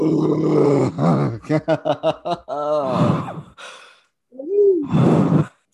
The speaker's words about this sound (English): the sound of wine going in my belly, which honestly, this is good wine. I forget what it's called, but it's making me happy.